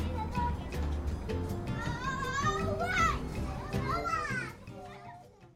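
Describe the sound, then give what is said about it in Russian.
Lively playground bustle of many children shouting and chattering together, with high-pitched squeals rising over the steady hubbub, which fades slightly toward the end. “Даже в детских садах устраивают игровые площадки на крышах, чтобы сэкономить место.”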